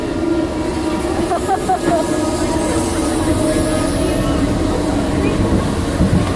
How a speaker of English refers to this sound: still a great roller coaster. It is.